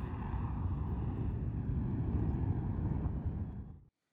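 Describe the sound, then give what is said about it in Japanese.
A steady, heavy roar of an airplane flying at an air show, recorded on a smartphone, broad and rumbling for nearly four seconds before cutting off abruptly, sounding somewhat thin, with no voices. “その時のあのエアショーがあったんで、その時の音をですね、えー、お聞きいただきたいなと思います。今、飛行機のですね、あこれね、本当はね、その時、すごい音なんですよ、現場は。”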